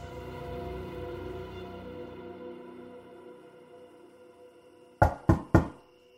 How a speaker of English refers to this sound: The next night, there was a knock on our door.